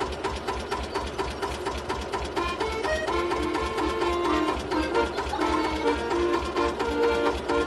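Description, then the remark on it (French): A man plays an accordion in front of his farm, a melody of sustained, reedy notes over the steady, rapid chugging of his tractor engine. Both are fairly loud, with no voices. “Agricole parce que le gars qui joue de l'accordéon devant sa ferme s'accompagne avec le teuf-teuf de son tracteur.”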